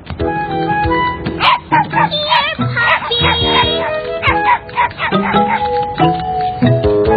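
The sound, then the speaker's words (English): Mr. Hinkle's puppies in the Caillou cartoon bark and yip in quick, excited bursts, fairly loud, excited to play, repeating throughout over a steady bed of sustained musical tones. “They're very excited to play with you. Oh, where'd the spotted puppy go, Mr.”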